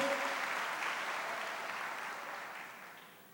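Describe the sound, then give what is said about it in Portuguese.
A crowd applauds the Holy Spirit, many hands clapping in a dense, continuous wash that holds strong and then slowly fades toward the end; no one speaks over it. “Então aplauda o Espírito Santo de toda a tua vida, de todo o teu coração.”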